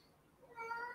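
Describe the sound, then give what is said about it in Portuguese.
A single cat meow rises in the second half, a fairly clear, tonal cry with stacked harmonics, moderately loud over a quiet background; the cat is wandering around, looking for a butterfly. “E o teu gato tá aí, né?”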